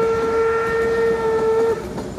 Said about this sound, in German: In diesem Moment kam der Zug in Sicht und ratterte mit etwa 20 Kilometern pro Stunde um die Kurve.